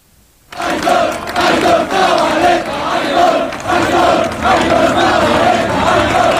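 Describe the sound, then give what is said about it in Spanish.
A large stadium crowd at Anoeta chants loudly and steadily in unison as a memorial tribute, a dense wall of massed voices with a rhythmic, swelling cadence that starts abruptly and continues without pause. “Mira, sí cantaba Noeta.”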